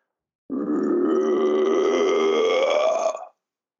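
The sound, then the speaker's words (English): A man vocally imitates a deep creature growl: one loud, sustained guttural rumble lasting about three seconds, rising slightly in pitch before cutting off, with no other talk or sound. “I could hear it breathing, uh, and and the growl was what.”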